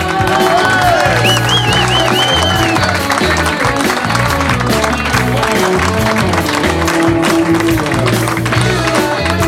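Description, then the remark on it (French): At the close of the Blues Café evening, an audience applauds a band steadily with some cheering while the band keeps playing, bass and melody lines running under the dense, continuous clapping at a loud, even level. “Je pense qu'on peut encore applaudir”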